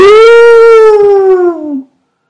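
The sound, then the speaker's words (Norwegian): A person's voice imitates a bear crying out "au!" in pain as its tail, frozen into the ice, tears off: one loud, drawn-out wail lasting nearly two seconds, holding steady and then sagging slightly in pitch before cutting off, heard alone. “Han reiste seg så fort han kunne, og han ut, utropte et stort au!”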